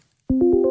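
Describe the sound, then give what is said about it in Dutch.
After a moment of silence, the new Windows 11 calendar reminder chime sounds: a soft, steady electronic tone with a gentle rhythmic pulse, clear, with no one speaking. “Eigenlijk is het dus gewoon een vergadering in zijn R, maar dan ja.”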